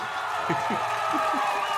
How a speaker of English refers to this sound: I love the applause.